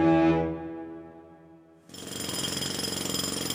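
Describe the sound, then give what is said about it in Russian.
Roadworks digging up a sidewalk: a loud jackhammer starts abruptly and hammers in a rapid, steady rattle, after a humming mechanical tone that fades away. No one speaks. “Если у тебя под дверью все лето перекапывают тротуар, это, конечно, не может не возмущать.”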